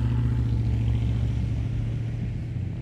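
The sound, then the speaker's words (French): A car engine starts and runs with a steady low rumble and drone, easing slightly toward the end as the car drives off into the night. No voices. “Puis il sort de chez lui grimpe dans sa voiture, démarre et file dans la nuit.”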